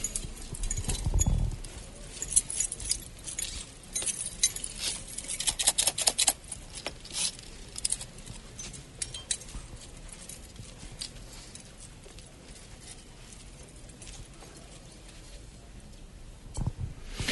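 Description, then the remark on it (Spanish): A swinging censer clinks and rattles on its chains, bright metallic taps coming in an irregular, steady stream. A brief low rumble sounds near the start, and no one speaks. “El sonido del incensario.”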